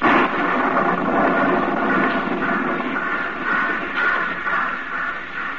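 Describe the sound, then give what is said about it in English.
A thunderstorm on a fall evening at a small suburban railroad station fills the whole stretch with a steady, rolling roar of thunder and rain, swelling slightly in places but never breaking. It sounds loud, with no voices. “In the quickening darkness of a stormy fall evening, a young girl paces the deserted platform of a small suburban railroad station.”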